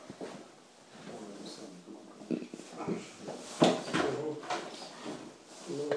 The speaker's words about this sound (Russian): А, так не пойдет, стул придется взять все-таки.